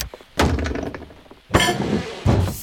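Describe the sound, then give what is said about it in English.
A door is unlocked with a key and shoved against something blocking it: three heavy thuds with a rattling, scraping tail, each push a little apart from the last. “something blocking the door!”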